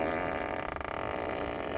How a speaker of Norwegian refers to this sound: Å sitte på i en bil hvor det kommer prompelyd fra setet ditt.